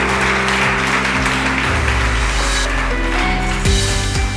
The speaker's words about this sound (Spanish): Démelo un aplauso a Isaías 53, mis amados.